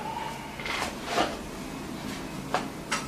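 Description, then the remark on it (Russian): A door is pushed shut: a few soft knocks and creaks spaced over a few seconds, ending in a light latching click, with a low steady hum in the background and no talking. “А, прикрой дверь.”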